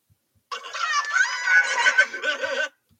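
A chicken clucks and squawks in a continuous, busy burst lasting about two seconds, clear, with no one talking over it.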